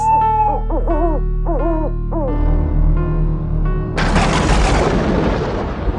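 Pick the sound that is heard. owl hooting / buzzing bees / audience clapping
owl hooting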